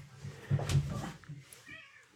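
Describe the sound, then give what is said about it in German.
A cat meows loudly, a drawn-out, wavering cry, followed by a softer, higher-pitched mew near the end, with no talking. “Ich äh, blende jetzt mal kurz Musik ein, damit die Schreie nicht hört, wie die Katze jetzt missbraucht wird.”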